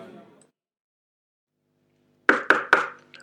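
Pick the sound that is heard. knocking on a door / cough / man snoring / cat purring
knocking on a door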